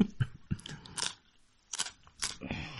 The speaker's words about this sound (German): Was denn? Ich esse nur ein Stück Weißkohl. Ja, das wird doch mal erlaubt sein.